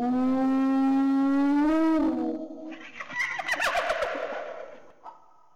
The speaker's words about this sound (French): Il arrive parfois que le hurlement d'une hyène se fasse entendre et les brebis ont peur.